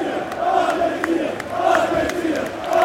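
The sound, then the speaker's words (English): A large crowd of away fans cheers and roars in a steady, sustained wave of noise, with scattered whistles and shouts rising above the dense, continuous din, as the United players all come over to them at the end of the first half of the season. “and the United players all coming over as one, and the crowd appreciating him.”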